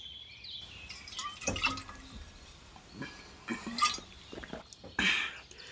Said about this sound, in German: Ich muss zuerst mal einen Schluck Wasser von meinem Bido haben.